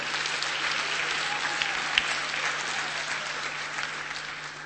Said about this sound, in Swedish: Omkring 30 000 på ett år. Det är ju alldeles fantastiskt. Det är väl värt en applåd.